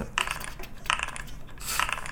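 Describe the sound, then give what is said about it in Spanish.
Three short bursts of rattling, clicking clatter, like dice tumbling across a hard surface, from a virtual dice app rolling two dice, repeat at roughly even intervals, moderately loud, with no voices. “Yo aquí tengo una aplicación de dados.”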